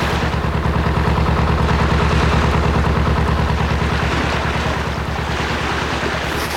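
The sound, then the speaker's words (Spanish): The motor launch of the ship Duncan approaches, chugging steadily over rolling sea waves, its low engine drone pulsing beneath constant surf and wind, loud throughout with no voices. “Los marineros me avisan que se acerca la lancha del Duncan, con mi Lord y Monsieur Paganel.”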